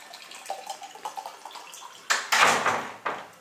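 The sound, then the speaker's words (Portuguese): As part of a demonstration, light clinks and trickles lead into a louder rush of water being poured, which fades briefly before another short splash. No one speaks. “Água aqui, água aqui.”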